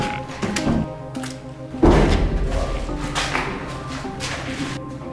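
A door in a building is shut on the way down to the basement, closing with a heavy, booming thud about two seconds in, its low rumble lingering afterward over a hum and scattered clatter.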